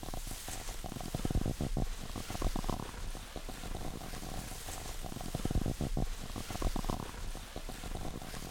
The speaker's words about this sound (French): on a mis le gobelet euh, autour du micro donc on a rentré le micro dans le gobelet et on est venu frotter avec les doigts autour du gobelet et ça fait ce petit son de, texture de, neige euh, qui, grince quand, tu marches sur de la neige fraîche.